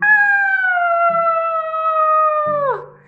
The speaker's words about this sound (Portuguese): Assim que desceu pela chaminé, o lobo caiu no caldeirão de água fervente. Não aguentando a dor, ele começou a gritar